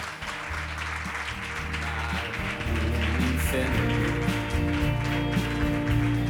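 Audience applause fills the room in a dense, steady wash of clapping that swells a little louder midway, with a low musical hum running underneath.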